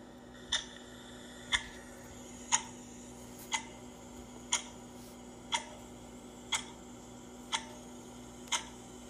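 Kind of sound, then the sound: sound effect, clock ticking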